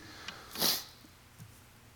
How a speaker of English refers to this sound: But I did come back with the sniffles. So sorry about that, but you're going to hear that once or twice tonight, I guarantee. Um, it's just my allergies.